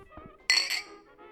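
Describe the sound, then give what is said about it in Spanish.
Glasses clink together in a toast to Sir Frank Williams on his 77th birthday, a bright ringing chime with a quick second tap that rings out and fades. “Brindamos por Sir... Frank. Ah, salud.”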